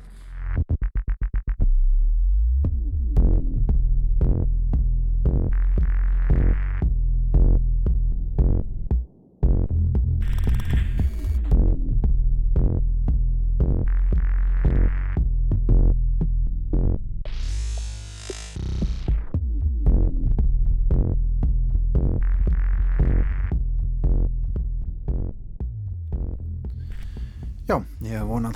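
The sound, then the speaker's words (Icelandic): Deep, throbbing bass vibration rumbles loudly and continuously for the whole stretch, with voice-like sounds layered on top and a brief dropout partway through. “þarna hafi ekki hátalararnir í litlu útastækjunum ykkar hlustendur góðir gefið sig eða bílarnir ykkar já, skröld bara eilið sundur vegna výbringsins í bassanum.”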